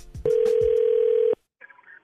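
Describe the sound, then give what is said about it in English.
A telephone rings for a prank phone call: a single loud, steady electronic tone holds for about a second, then cuts off, followed by a short, faint burst of a voice. “Right now, though, the nephew is here with today's prank phone call.”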